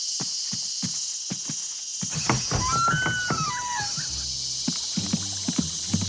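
Cicadas drone in a steady, shrill, high-pitched buzz that never lets up, with scattered dull knocks and a few brief chirps underneath; no one speaks.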